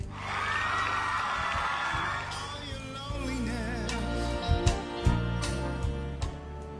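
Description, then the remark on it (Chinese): A crowd cheers and whoops while scattered hand claps break through, growing sharper and more distinct in the second half, with no clear speech. “那就恭喜你喽！鼓鼓掌吧。”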